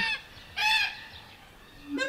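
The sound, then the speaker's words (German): Crows calling: three harsh, nasal caws at irregular intervals, the middle one loudest and longest, with no voices. “Krähen, Krähen, weiße Kakadus, Buschhühner. Überall Krähen”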